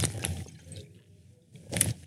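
Someone takes a swig of whiskey: two short, wet gulping and sloshing bursts separated by a quiet pause, with no talking.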